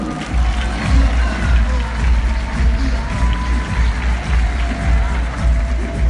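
A crowd applauds and cheers for the corporation, in a steady, dense wash of clapping with a rumbling low undertone, holding at a fairly loud level throughout without clear breaks.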